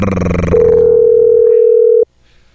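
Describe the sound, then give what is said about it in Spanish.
A loud, steady telephone line tone sounds for about a second and a half after a burst of music on the radio station Radio Poder as it calls a listener's line, then cuts off abruptly into near silence. “Vamos rápidamente a la línea telefónica.”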